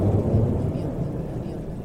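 A steady, low rumbling drone of an airplane engine heard from far off fills the whole stretch, deep and muffled, holding at an even level with no distinct breaks.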